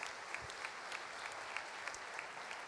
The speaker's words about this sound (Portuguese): Olha que esse casal, pode aplaudir. Fique em pé.